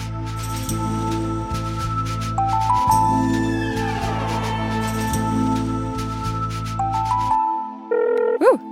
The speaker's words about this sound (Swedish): Nu ringer det. Nu ringer det. Nu ringer det.